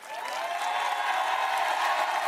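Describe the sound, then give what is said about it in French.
Sustained applause from a France Insoumise rally crowd cheering the leader's instruction not to give a single vote to Marine Le Pen in the second round: a steady dense wash of clapping that holds at an even, fairly loud level throughout, with faint cheering mixed in. “Pas une seule voix à Marine Le Pen, a répété le leader France Insoumise, consigne très applaudi.”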